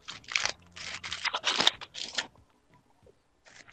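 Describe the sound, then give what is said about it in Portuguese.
Someone chewing crunchy food, a rapid run of loud, crackly crunches lasting about two seconds, then near silence with a couple of faint soft clicks. “Você tá comendo, viado?”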